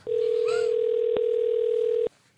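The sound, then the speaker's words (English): A loud, steady telephone dialing tone holds for about two seconds with a brief click partway through, then cuts off abruptly into near silence. No one speaks. “Imagine we put that in and then someone could tell what his number was based on the tone.”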